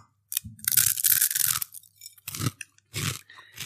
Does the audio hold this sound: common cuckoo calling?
no